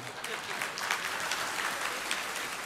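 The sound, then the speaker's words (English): A crowd applauds steadily, dense overlapping claps filling the space at a moderate, even level with no voices standing out above them. “Clap if you agree with me, okay?”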